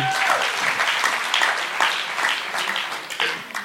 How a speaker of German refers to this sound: Und dann die Generation X, Baujahr 65 bis 80. Auch Applaus, schön.